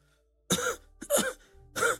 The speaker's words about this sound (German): Ähm, ihr hört aus Richtung Galens ein trockenes Husten kommen.